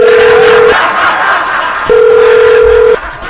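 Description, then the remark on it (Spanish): A phone ringback tone sounds twice as a call is placed on behalf of a debt-collection agency: steady mid-pitched beeps about a second long, separated by a pause, loud over a faint background hiss. “Vamos a marcarle, por favor.”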